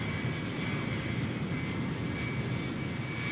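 A steady, unbroken airliner cabin engine hum before a scheduled 1:30 p.m. departure on an 11-hour-35-minute flight, with 7 degrees Celsius and low cloud outside; a broad low roar with a faint high whine riding on top, holding constant at moderate loudness with no voices.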